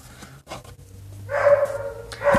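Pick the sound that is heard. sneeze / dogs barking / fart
dogs barking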